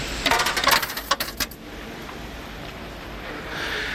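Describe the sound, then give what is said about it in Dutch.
Several coins clink and rattle as they drop into the slot for electric candles in a cathedral, in a quick burst over about a second and a half, followed by a quiet, steady hiss. “We gooien wel wat muntjes in de gleuf.”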